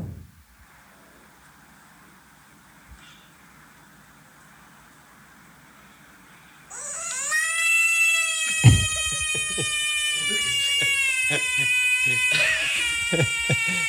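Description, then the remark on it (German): A bullfrog lets out a loud, piercing scream, a sustained wailing cry much like a shrieking cat or crying baby, starting abruptly after several seconds of quiet and continuing with slight wavering to the end. “Das ist so ein Ochsenfrosch. Ochsen, ich glaube, das ist ein Ochsenfrosch.”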